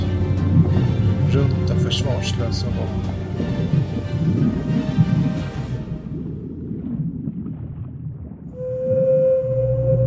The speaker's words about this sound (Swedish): Valen dras med av megalodons omslutande käke mot ytan. Valen jämrar sig med smärta medan dess artfränder flyr den enorma argen.